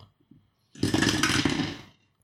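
Dice tumble down a dice tower in a loud, dense rattling clatter lasting just over a second, then fade out. A couple of faint taps come before it, and no one speaks.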